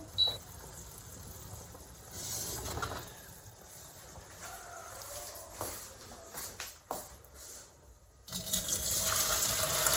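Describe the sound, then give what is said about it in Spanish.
Cold running water pours steadily over cooked pasta in a colander to cool it for a pasta salad, a broad rushing splash with clinks and shifts, growing louder and fuller near the end. No one speaks. “Vamos a echar agua fría porque como es una ensalada, no queremos que la pasta esté muy caliente.”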